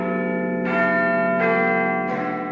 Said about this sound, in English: Strange time to hear Big Ben. You'd normally hear it at the top of the hour.